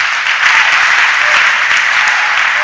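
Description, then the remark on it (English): An audience at a church Sunday service breaks into steady, loud applause for Jesus, many hands clapping at once in a dense, continuous patter that holds evenly for a few seconds with no voices standing out. “Clap for Jesus.”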